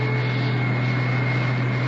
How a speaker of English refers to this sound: On the plane, speeding south, I closed my eyes